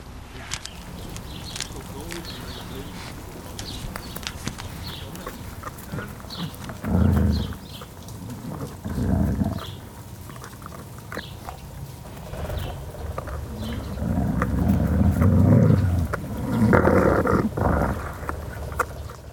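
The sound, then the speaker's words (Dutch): A wolf sniffs right up against the microphone and chews on a calf leg, with close, muffled snuffling bursts, wet crunching and scattered clicks coming and going unevenly. “Ja, dat is een wolf die aan de microfoon snuffelt en een kalfspoot aan het eten is.”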